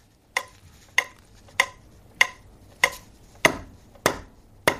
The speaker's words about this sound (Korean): 이게 뭔 소리일까요? 예. 시계 초침 소리예요. 어, 시계 초침. 그죠. 새벽에 이렇게 들어보면 조용할 때 들으면 이렇게 크게 들리겠죠.